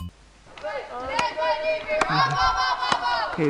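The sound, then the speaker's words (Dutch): A group of voices shouting their monthly camp yell in unison, loud, punctuated by three sharp, evenly spaced beats like claps or stomps. “En toen riepen we de jel die we voor elke maand het moeten roepen.”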